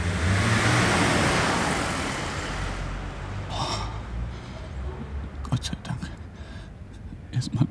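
A car rushes past with a loud, broad whoosh and low engine rumble that fades over a few seconds, leaving faint whispering and small clicks.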